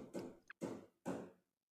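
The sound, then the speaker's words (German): Three heavy, dull knocks land in a slow, even rhythm at the speaker's home, each one ringing briefly before fading. They are fairly loud, with a faint tap between the first two and silence after. “Das erste Klopfen. Bei mir wird noch ein wenig geklopft.”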